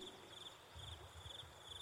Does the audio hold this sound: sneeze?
no